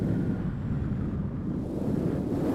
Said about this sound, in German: Es ist recht kalt und windig.